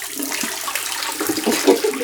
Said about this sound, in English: Okay, let's pour out the pre-soak. And you'll recognize this sound this is how we usually begin our dev parties.